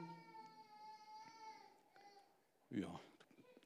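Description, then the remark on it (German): A baby cries in a long, drawn-out wail that rises and falls, followed by a brief, louder outburst. “Gegen Baby kann ich nicht bestehen.”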